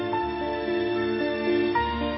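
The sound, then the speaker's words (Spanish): An orchestra from Vitoria-Gasteiz, Spain, plays a sustained, harmonically rich passage with held string tones and shifting chords, steady and moderately loud, with no voices. “Nos vamos hacia Vitoria Gasteiz con esta música que pertenece a la Vitoria Gasteiz Orquestra.”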